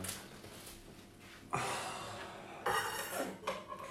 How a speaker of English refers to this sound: Whoa! Why did you put the lid on it when it's already boiling over? To get a moment of drama.